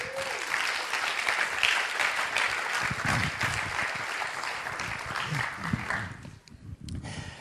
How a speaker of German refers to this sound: Kommt doch vor und einen grossen Applaus.